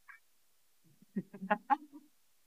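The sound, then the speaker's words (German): A human voice imitates an eagle's call with a short burst of harsh, squawking cries, rising and breaking in quick succession, after a brief faint chirp. “mein Adlergeräusch.”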